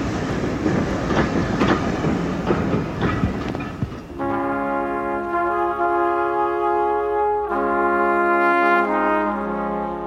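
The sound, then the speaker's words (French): A train carrying Winston Churchill away from London during his state funeral rumbles and clatters loudly along the tracks for a few seconds, then a long, steady droning tone takes over, shifting slightly partway while the rolling noise continues beneath it. “Winston Churchill, dans ce train, s'éloigne de Londres et entre dans l'histoire.”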